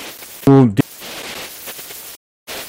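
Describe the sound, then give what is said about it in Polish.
Steady hiss of radio static in a distress signal, with a brief, garbled voice burst calling SOS near the start, then a sudden dropout to silence before the crackling noise returns, like a broken transmission. “Kiedy próbujesz to zrobić, sygnał brzmi mniej więcej tak.”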